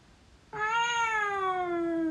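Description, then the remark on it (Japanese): An Alexa smart speaker, asked to imitate a cat, plays a single long meow that begins abruptly after a brief quiet moment, loud, its tone sliding slowly downward as it stretches out for well over a second, with no talking. “アレクサ、えー、猫のモノマネ。”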